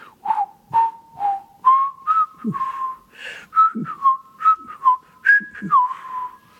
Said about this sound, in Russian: Вот Мио, например, говорил Прокофьеву в Париже, когда приехал из России, там насвистывают тему вашего марша из трех апельсинов.